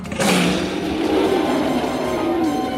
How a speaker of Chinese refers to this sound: 鳄鱼巫婆一声大吼，强大的冲击音波朝着兔子妮妮而来。